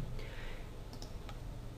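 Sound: computer mouse clicking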